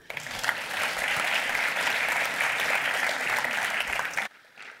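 A room full of people claps steadily for about four seconds, a dense, even patter of many hands, before cutting off abruptly into quiet. The audience is applauding a person after an interview.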